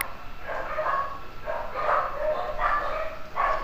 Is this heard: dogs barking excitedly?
yes